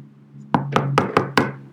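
Five sharp knocks rap on a wooden door in an uneven quick rhythm, fairly loud, over a low steady hum, with no voices.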